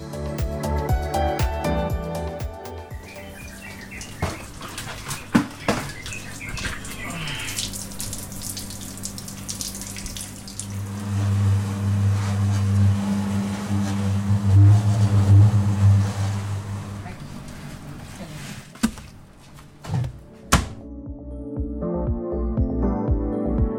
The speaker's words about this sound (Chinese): 其实豆腐，你在听刚刚那一串几组的声，其实有很多机器，然后嗡嗡的声音，你有听出个什么所以然吗？ 感觉在磨什么东西，就是铺平，好像是铺平什么东东的声音。